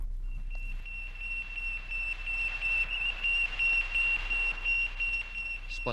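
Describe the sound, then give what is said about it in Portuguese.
Radio beeps of Russia's Sputnik 1 satellite from 4 October 1957, monitored around the world: a high, steady electronic tone pulsing in a fast, even rhythm over a constant bed of hiss and static, with no voices. “Sputnik, o som que chocou o mundo livre. A data, 4 de outubro de 1957. Este foi o som monitorizado em todo o mundo.”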